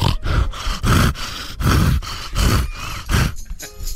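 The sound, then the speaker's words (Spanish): A voice imitates asthmatic wheezing during orgasm: a loud, rhythmic series of rasping, breathy gasps and grunts, about two per second, with no words spoken. “Pues, el orgasmo asmático es cuando la mujer está así.”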